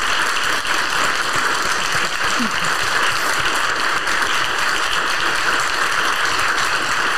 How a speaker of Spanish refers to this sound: Gracias, gracias, gracias. Le damos un aplauso con mucho amor y admiración.